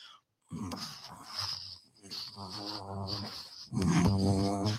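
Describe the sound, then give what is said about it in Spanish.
A person imitates a cat purring with a low, rumbling vocal sound held in a few long bursts, growing louder toward the end. “Sí, ah, me encanta que los gatos ronroneen, o sea, se me hace tan... voy a ronronear como gato”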